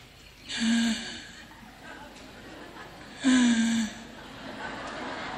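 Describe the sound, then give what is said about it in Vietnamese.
A voice imitates the gasping breath of a dying person: two loud, raspy gasping inhalations about two and a half seconds apart, each a strained, rattling intake of breath, with quiet background noise between them. “nó lên không quý vị là sắp chết rồi đó nó lên không mà nó không hít nó không buông xuống mà hít lại là sắp chết rồi đấy nên con người mà khi mà thở ra mà hít được vô tuy là thở, thở khó nhưng mà hít lại được là con người này còn có thời gian vài ngày”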